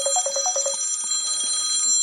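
A phone rings with a quick, bright, trilling burst of repeated electronic tones, then trails into a few sparser, softer beeps. No one speaks.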